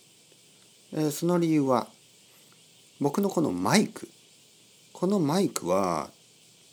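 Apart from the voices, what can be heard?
cicadas chirping in summer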